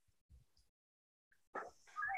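A dog left outside gives a short bark followed by a thin, high whimpering yelp, both faint and brief, after a few soft thumps.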